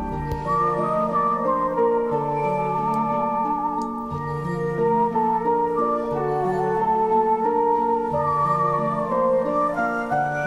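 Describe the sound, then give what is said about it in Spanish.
A romantic, old-fashioned film score by Alexandre Desplat for a film about an unusual love story between a mute woman and an amphibian plays steadily throughout: sustained accordion chords beneath a wavering, airy melody of flutes and whistling performed by the composer himself, with no voices. “Desplat elabora notas románticas, pero con un tono antiguo. Hay acordeón, flautas y una especie de silbido que también acompaña algunos cortes y que parten, por cierto, del propio compositor.”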